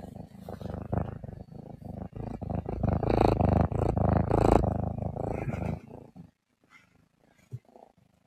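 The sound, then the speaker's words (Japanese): A small, light young cat purrs steadily, a dense rumbling drone with a pulsing rhythm that fades out near the end, leaving brief soft sounds. “ぐるぐる猫が言っております。”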